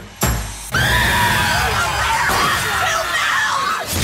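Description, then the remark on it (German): A chaotic chorus of many people screaming at once, loud and continuous, overlapping shrieks and wails filling the space for several seconds after a brief opening burst. “I can only play you a brief audio clip of what is happening there right now.”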